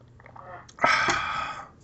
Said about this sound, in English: You just slurped, and you're going to give me a hard time. I slurped. I didn't belch.